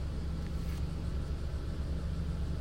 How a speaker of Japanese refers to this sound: まあ、そんなんで私は今日、もうたまらずね、エアコンをつけながら、車中録をしております。